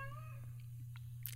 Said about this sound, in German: Ist das gerade eine Katze mit Ja, das war eine Katze.